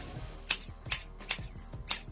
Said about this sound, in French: Qu'est-ce que c'est? C'est une cisaille. Une cisaille? Une cisaille, c'est pour couper justement les vivaces à l'automne, puis pour émonder les haies, puis tout ben, ça.